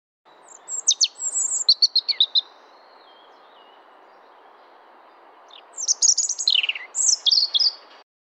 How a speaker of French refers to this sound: Vous venez d'entendre le chant d'un rouge-gorge.